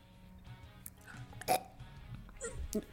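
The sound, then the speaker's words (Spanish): A man burps close to the microphone, a couple of short, abrupt gulping bursts about a second apart over a quiet, murky background with no talking. “Y este hombre casi nos erupta en los oídos.”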